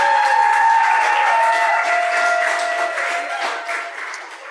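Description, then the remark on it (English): An audience at Firehouse applauds special guests coming up, with steady, dense clapping that holds loud for several seconds and eases slightly toward the end, with a faint sustained tone humming underneath. “Give them a big hand as they come up.”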